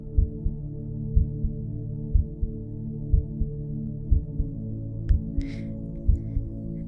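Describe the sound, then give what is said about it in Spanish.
A steady heartbeat thumps in a slow, regular rhythm, each beat a soft double pulse about once per second, over a low continuous hum, with a brief faint rustle near the end. “Hey, escucha por un instante tu corazón. Sí, es cierto. Está latiendo, escúchalo.”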